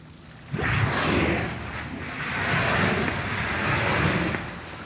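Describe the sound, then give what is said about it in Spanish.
Open sea waves wash and roar steadily after a quiet start, swelling and easing in broad surges, with wind buffeting the microphone throughout, out on an emerald-green open sea where a whale and its calf are being watched. No voices are heard. “Porque es que estás viendo un animal enorme en mar abierto, para donde voltees a ver 360 grados estás en el mar y es sentirse diminuto en esa inmensidad del cielo con el mar verde esmeralda, con una ballena y su bebé.”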